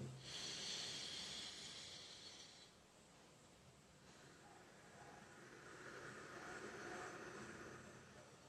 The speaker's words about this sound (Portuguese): Se você respirar assim, como, como eu mostrei né, rapidamente, uma respiração profunda e uma expiração mais lenta